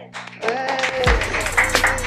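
A short burst of applause, dense scattered clapping with some cheering voices mixed in, holding a steady moderate loudness for about two seconds, with a low thump partway through.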